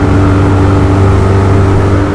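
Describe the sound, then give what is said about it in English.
A loud motorboat engine drones steadily, a constant mechanical roar with a strong low hum filling the whole stretch, no voices audible. “And it's a it's a hard cut to a loud boat.”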